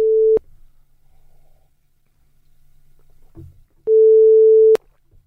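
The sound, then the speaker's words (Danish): A telephone ringback tone sounds during an outgoing call to a curtain service: a steady, mid-pitched beep, first clipped short, then a fuller burst of about a second after several seconds of near silence with faint rustling. “Jo, nu ringer vi til dem.”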